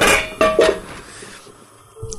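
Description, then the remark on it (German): Pasta being drained into a sieve: a brief rush of splashing water with a couple of louder clattering bursts from the pot, then quieter dripping and a final soft knock. No talking. “So, die Nudeln gieße ich jetzt mal ab.”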